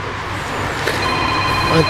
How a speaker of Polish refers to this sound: I telefon dzwoni tutaj, mm, e, telefony e, dzwonią, telefony w mojej głowie, telefony w naszym radio.